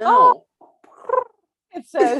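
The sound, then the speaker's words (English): A cat purrs softly in a low, steady, faint rumble while people talk and laugh around it. “I think that's our cat.”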